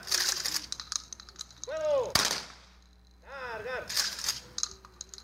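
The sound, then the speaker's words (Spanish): A single sharp volley of blank salute fire, shot into the air by a squad of the State Investigation Security Guard at a memorial ceremony, cracks out midway, echoing briefly outdoors, between loud shouted commands, with a steady hiss and faint clicking in the background. “Después, un pelotón de la Guardia Estatal de Seguridad de Investigación realizó disparos de salvas al aire.”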